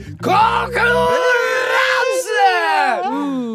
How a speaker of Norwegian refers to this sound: Du trodde kanskje du slapp unna den skrikeintroen der, Nei, men det gjorde du ikke.